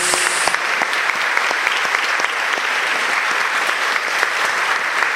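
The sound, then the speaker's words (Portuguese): An audience applauds the word of God after the Gospel reading at Sunday Mass on the sixth Sunday of Easter, many hands clapping at once in a dense, sustained, reverberant wash of sound that carries on for several seconds without talking. “Vamos aplaudir a palavra de Deus, queridos amados.”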